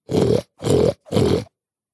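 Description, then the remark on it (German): A pig on a farm grunts cheerfully three times in a steady, evenly spaced rhythm, each grunt loud and rough-textured, with short pauses between them and silence afterward. “Schon hören sie ein fröhliches Grunzen.”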